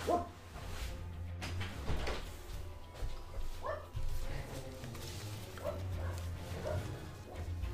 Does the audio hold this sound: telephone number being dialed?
no